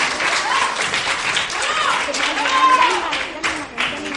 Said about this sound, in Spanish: Seguimos en Cadena de Belmés, pero sin antes no podemos, tenemos que darles aplauso, ¿no? Que lo han hecho genial.